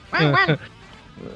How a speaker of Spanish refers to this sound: perdón mi perro, pero ya hasta ahí está emocionó de esta, de esta nota.